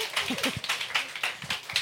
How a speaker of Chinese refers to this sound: 你们会 会想要拍手吗？嗯、很庸很庸俗的那个，就是打拍子啊！我是说打拍子，